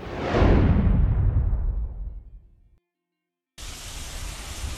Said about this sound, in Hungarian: Ömlő eső és hömpölygő víz. Így nézett ki tegnap egész nap a főváros. Annyi eső esett, mint máskor két hét alatt augusztusban, és ezt már a csatornák sem bírták.